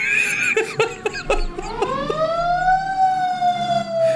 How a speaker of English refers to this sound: Sorry, I love the 1920 siren that's still on the fire engine. They caught John Dillinger, dude.